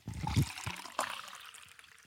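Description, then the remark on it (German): Liquid is poured from a bottle, a brief splashy trickle with a couple of low gurgling glugs at the start that fades out over about two seconds. “Gieß das mal ein.”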